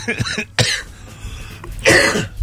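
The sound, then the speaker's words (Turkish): Several harsh coughs in quick bursts: a short fit at the start, another sharp cough just after, and a louder rasping cough near the end, with no speech. “tüberküloz yapacak.”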